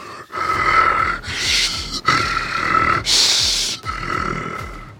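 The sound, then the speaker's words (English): A voice imitates the guttural, bestial panting of a monster with a red, elongated neck and a dragon's head: rough, raspy breaths in and out, about five heavy pants in a steady rhythm, loud with no talking. “guttural, bestial pant”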